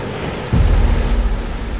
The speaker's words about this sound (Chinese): 看到被超前的龙先生，很不甘心啊，于是召唤了大海，打算用大海浪卷走小玉和小五。